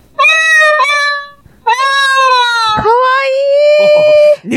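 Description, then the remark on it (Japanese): A cat's meowing imitated on an Otamatone by sliding the finger, giving a few drawn-out, wavering meows with whiny, sliding pitch, loud, the last one long and slightly angry-sounding. “にゃんこの音を、猫の音をやってみるか。”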